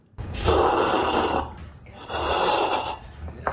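Two loud, airy slurps of coffee during a coffee tasting at Kaldi's, each drawn out for about a second with a short pause between them, a hissing rush of sucked-in air and liquid with no talking.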